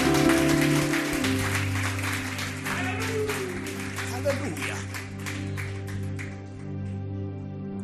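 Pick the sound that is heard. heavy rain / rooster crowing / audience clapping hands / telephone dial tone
audience clapping hands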